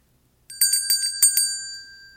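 A bright bell chime rings out in a quick run of several clear strikes, its tones lingering and fading after a short silence. No one speaks over it.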